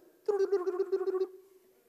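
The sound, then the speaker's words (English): A voice mimics a phone ringing with a quick, warbling trill held on one pitch for about a second, loud, then trailing off into quiet. “And my phone used to sound like this.”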